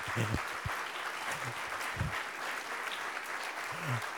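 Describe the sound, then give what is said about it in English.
Steady audience applause one morning for a visiting Navigators group from Georgia State standing up, a dense wash of many hands clapping at an even level throughout, with a few brief voices and whoops rising faintly above the clapping. “Why don't you give them a round of applause this morning?”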